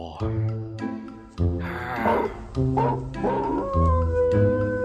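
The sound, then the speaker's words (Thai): A man's voice, a thief in a told story, stretches into a long, drawn-out yawn that rises into a wavering, dog-like howl, imitating a wolf. It is his second yawn and howl, loud with strong harmonics throughout. “พูดจบเขาก็ได้หาวแล้วก็หอนเป็นครั้งที่สอง”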